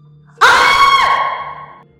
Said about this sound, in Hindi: शिप्रा की जोर से चीख निकल गई और शिप्रा का फोन कहीं दूर जा गिरा शायद बेड के नीचे